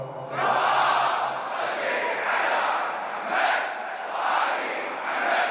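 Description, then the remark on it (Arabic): A large crowd loudly chants salawat in unison, a dense wall of many voices rising and falling in long rhythmic surges, sustained throughout. “انت فرحتنا الكبير انت فرحتنا الكبيرة تفتح ابواب الجنان صلوات”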